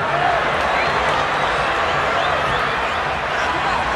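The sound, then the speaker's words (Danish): A huge stadium crowd roars continuously after a football goal at the 1998 World Cup in France, in a play involving Brian Laudrup of Denmark, a dense, loud wall of cheering and shouting that holds steady throughout without letting up. “Kan du høre, hvilket mål, der bliver scoret her”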